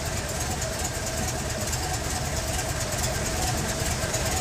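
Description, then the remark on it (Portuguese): A vintage car engine idles steadily, a low, even rumble with a faint mechanical chatter on top, holding constant and fairly quiet throughout without any revving. “Mas observe o quanto o funcionamento, o quanto o ruído é baixo, o funcionamento é baixo.”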